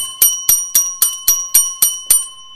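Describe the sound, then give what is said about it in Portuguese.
A small handbell rings eight times in a quick, steady rhythm, each bright strike leaving a sustained metallic shimmer that carries into the next. No one speaks. “Vou trazer aqui um sininho, ó. Quando for alguma coisa for importante, eu vou tocar esse sino aqui, ó.”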